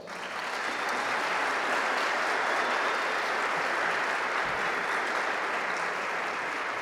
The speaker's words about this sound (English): And before I go on, though, uh, let's give the Latino Art Strings program, De Las Carlos program, uh, musicians a special round of applause.